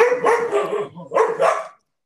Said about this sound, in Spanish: Espérate, de hecho me voy a tener que correr de aquí porque de verdad la insolencia perruna es infinita en esta casa. Ellos saben que son los más lindos y se aprovechan.